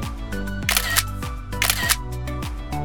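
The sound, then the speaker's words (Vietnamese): Camera shutter clicks fire in two quick bursts as photos are taken from the front of a boat in Ha Long Bay, Vietnam, crisp against a steady low hum, with no one speaking. “Ơ, tàu hình như đi chậm hơn rồi Bọn mình ra phía trước chụp ảnh đi”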